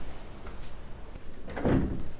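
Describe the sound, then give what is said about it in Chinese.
A cabin balcony door on the Royal Caribbean cruise ship Voyager of the Seas slides and shuts with a single solid thump near the end, preceded by faint rattling, all over a steady low background hum with no talking. “我把我把这个阳台的门关上。”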